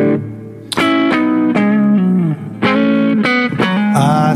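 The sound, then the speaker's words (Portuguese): An amplified semi-acoustic electric guitar plays a short melodic phrase of sustained, plucked notes with a warm, slightly distorted tone, loud, with no talking. “Ah, você falou da semiacústica, né? Como... Acho que ela ficou som muito fechado agora.”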